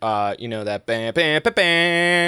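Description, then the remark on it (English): A person vocally imitates a dramatic CNN news alert sting, belting four punchy, tonal bursts in quick succession after a brief spoken lead-in, loud. “You know, like that that sound is an alarm, uh, and it it alerts you and it puts you into that like that it, it sets your amygdala off.”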